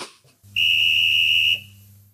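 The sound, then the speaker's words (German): A single long, shrill referee's whistle blast for kickoff, steady and loud for about a second, over a low continuous hum, then cutting off abruptly. “Anpfiff.”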